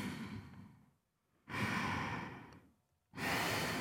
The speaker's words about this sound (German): Hier wird jetzt sofort klar, dass diese Person aufgeregt ist. Das spüren wir, denn wir alle atmen beschleunigt, wenn uns etwas aktiviert. Ob Ärger oder Freude ist gar nicht so wichtig.